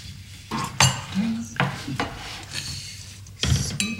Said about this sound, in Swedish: Man känner både en flaska och glas. Och en öppnare.